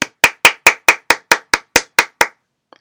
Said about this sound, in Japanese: はい、まあ一人なんでね、一人で自分で言って自分で拍手してという状況ですけれども